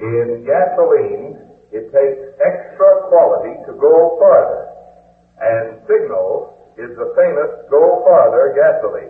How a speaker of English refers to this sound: On the other hand, through the public address system, it sounds like this.